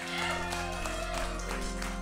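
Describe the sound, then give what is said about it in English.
A modest round of audience applause for a former Atlanta Braves player who hit three home runs in the 1995 World Series, a steady patter of many hands clapping at moderate volume for about two seconds, with a low hum underneath. “Three home runs in the 95 World Series deserves a little bit bigger round of applause, yeah.”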